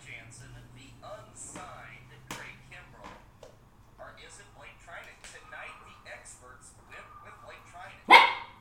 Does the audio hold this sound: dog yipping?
yes